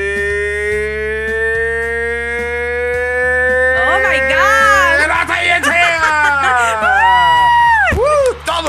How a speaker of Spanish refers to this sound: parón de verano practicando el grito, ¿eh? Y casi tumbo el micrófono y la mesa y la silla y la laptop. Todo, todo casi se va.